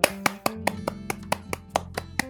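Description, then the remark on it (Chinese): Hands clap about eleven times in a quick, even rhythm, each clap sharp and crisp, with a faint steady tonal hum running underneath and no voices. “所以接下来的每一集都会有来宾，耶，拍手。”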